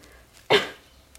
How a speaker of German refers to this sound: Gesundheit, was es war eher so. Nee, es war ein Huster. Ich habe okay. gerade was im Hals gehabt.